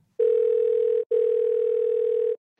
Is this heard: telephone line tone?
yes